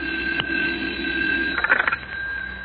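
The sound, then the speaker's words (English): A telephone bell gives a short, rapid rattling ring in the middle, heard through a muffled, narrow old recording with a steady background hum and no talking. “oh, there's my phone now.”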